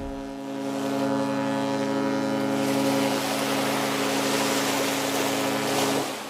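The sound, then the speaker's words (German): A deep, sustained horn of the cruise ship MS Amadea blares loudly for about six seconds as one long continuous blast, with rushing wind and water noise swelling beneath it. “Dieses Hupen und die Worte Schiff Ahoi hat Emilia Heigl in den letzten sechs Monaten öfter gehört als alles andere.”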